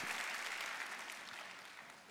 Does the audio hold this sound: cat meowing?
no